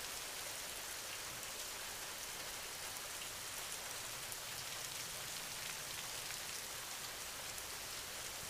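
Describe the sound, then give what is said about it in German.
Steady rain falling on the ground, a dense soft hiss of countless individual raindrops pattering evenly throughout, continuous with no voices. “Tropfen für Tropfen entsteht das angenehme Rauschen des Regens.”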